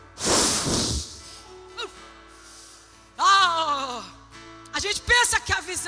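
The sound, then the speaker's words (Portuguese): A voice imitates rushing wind with a loud, breathy whoosh lasting about a second, followed by a few short voiced vocal sounds. “E esse vento fazia assim, ó.”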